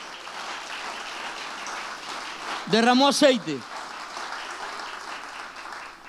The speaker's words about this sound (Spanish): Dale un aplauso al Señor en esta hora.